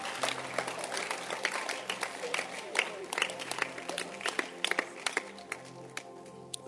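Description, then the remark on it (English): A group of people claps steadily for several seconds for a woman who has many Bible translations, a dense patter of many hands at moderate volume, with faint voices murmuring underneath. “I think let's, let's clap for her.”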